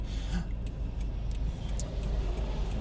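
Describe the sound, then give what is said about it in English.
A car drives through traffic with a steady low rumble of engine and road noise throughout, and faint brief hisses rising now and then above it. “You see, cars stopped and you just stick in the right lane, like jerks.”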